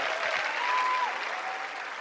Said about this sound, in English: And a big applause for Peng Shuai from China.